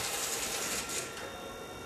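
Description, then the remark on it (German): Continuous mechanical rattling and clattering of electromechanical stepping selectors in a telephone exchange switching busily, steady with dense clicks throughout and no voices. “wie will man denn da wissen, das rappelt und, und klappert ja an einer, in einer Tour, wie will man denn da wissen, wo ähm, das, die gesuchte Leitung eigentlich ist?”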